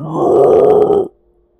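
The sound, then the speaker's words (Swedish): A person growls out a loud, sustained monster roar for about a second, raspy and forceful, then it cuts off abruptly into silence. “Och den drar sig fram och ger ifrån sig ett öronbedövande vrål.”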